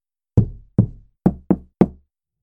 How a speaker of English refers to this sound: Before entering, she does a coded knock